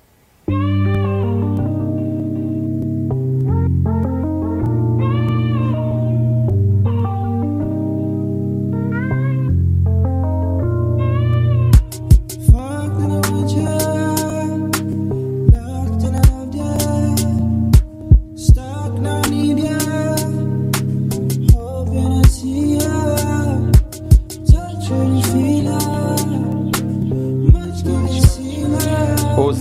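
A slow, sensual electronic hip hop track: warm synth chords and deep bass open quietly, then a sharp, sparse beat kicks in about halfway through and carries on with no vocals.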